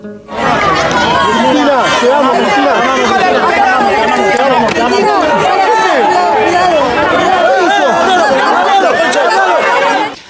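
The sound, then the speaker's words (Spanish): Dense crowd hubbub outdoors at the moment of an assassination attempt, at the corner of Juncal and Uruguay in the Recoleta district of Buenos Aires, many overlapping voices shouting and chattering at once, loud and continuous throughout with an agitated, clamorous energy and no single voice standing out. “Ese es el sonido ambiente, lo que acabamos de escuchar, del momento exacto en el que el atentado tuvo lugar, en la ya célebre esquina de Juncal y Uruguay, aquí en la ciudad de Buenos Aires, en el barrio de Recoleta.”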